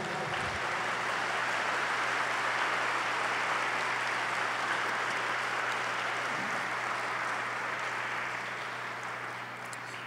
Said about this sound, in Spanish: Dale un fuerte aplauso a Jesús porque te veo muy callado.